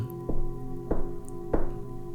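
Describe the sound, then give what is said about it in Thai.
Three soft, evenly spaced knocks on the door of room 405, where a bag of food hangs, on a dark floor. Each is a muted thud with a short ring, over a steady low hum and no voices. “มิกส่องไฟไปตามห้องช้าๆ และได้พบเจอกับห้องหมายเลข 405 ในที่สุดมิกแขวนถุงนั้นไว้ที่ประตู แล้วเริ่มเคาะเบาๆสามครั้ง”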